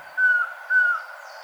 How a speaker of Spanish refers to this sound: Esta grabación del Trogón Collarejo fue captada en el Valle del Cauca y forma parte del Banco de Sonidos de Aves recopilado por el Instituto von Humboldt y la Universidad de Cornell.